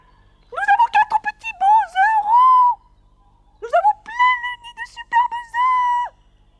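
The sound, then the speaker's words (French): A human voice imitates a starling's song in two lively bursts of high, warbling, whistle-like notes, fairly loud, with a brief pause between phrases. “Un sansonnet s'était perché sur la girouette même et chantait de toutes ses forces pour que la femelle qui couvait ses œufs dans un poirier pût entendre chaque note.”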